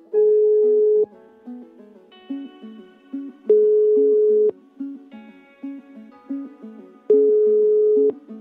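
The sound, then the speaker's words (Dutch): A phone ringback tone while calling a man at his home: three long, steady beeps at even intervals, with a soft plinking melody filling the gaps between them. No one speaks. “Ik ga met hem in gesprek en ik bel hem, uiteraard, thuis”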